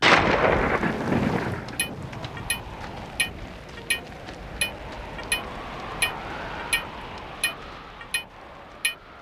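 A loud rumble of thunder opens, then fades into a steady wash of heavy monsoon rain, with sharp ticking sounds repeating at an even pace over the downpour. No voices.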